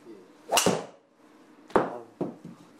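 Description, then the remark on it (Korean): Sharp cracks of a golf club striking a ball during a golf shaft fitting session, with the ball's direction and distance measured after each hit. Two crisp hits about a second apart, followed by a softer third smack, with quiet in between and no talking. “자, 여기 정면에 보시면 타격 이후에 볼이 날아간 방향이나 거리를 볼 수 있습니다.”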